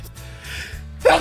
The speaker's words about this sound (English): Uh, I could be have the sneeze. Bless you. I could have the sneezes because you know what I was doing.